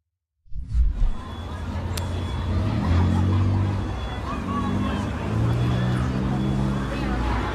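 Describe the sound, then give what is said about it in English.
Busy street noise from a video in Chicago of a group jumping on cars and running across traffic: steady engine rumble and passing vehicles blend with the murmur of a crowd, loud and continuous throughout, with a faint high whine running underneath. “Uh, here is a video of one group jumping on cars and running across traffic in Chicago.”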